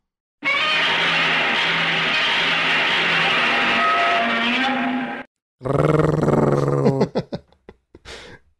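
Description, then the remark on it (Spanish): A Godzilla-style giant movie monster roars loudly, a long, sustained, gritty bellow of about five seconds, followed by a second shorter roar that breaks up and trails off in stuttering bursts. “Estaba buscando sonidos de Godzilla y hay un video donde hacen un concurso de unos niños.”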